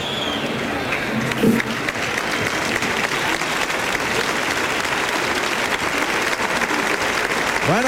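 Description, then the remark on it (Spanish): A large bullring crowd applauds steadily throughout, a dense, continuous roar of clapping with cheering, an ovation for the bullfighter Fortes. “pues premio de ovación para Fortes.”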